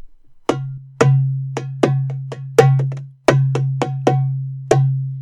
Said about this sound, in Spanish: Bueno, y este este tambor, es un tambor, eh, tiene desde graves profundos con mucha proyección hasta agudos. Normalmente a los graves profundos les llaman doom y les voy a decir más o menos cómo suena.